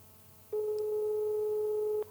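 A single steady telephone ringback tone of a call going unanswered, one sustained electronic beep of about a second and a half, clear and fairly loud over a faint background hum, with no voices.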